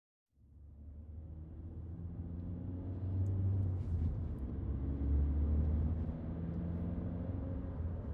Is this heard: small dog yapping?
no